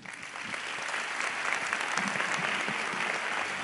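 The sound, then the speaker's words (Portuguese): A crowd breaks into sustained applause for the team that worked, a dense, steady patter of many hands clapping at even loudness throughout, with no voices standing out. “Pessoal, eu queria pedir uma, uma salva de palmas aí para a equipe que trabalhou.”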